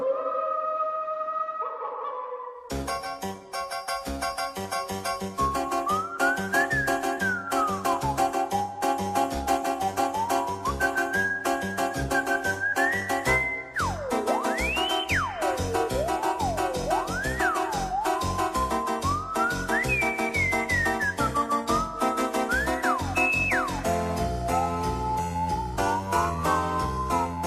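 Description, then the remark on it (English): An eerie, spooky theme with a wavering whistle-like melody that swoops and glides up and down over a loud, dense musical backing, following a brief quieter opening; it sounds like the whistle in The Simpsons Treehouse of Horror episodes. “It does, with that whistle that you know how they always do that”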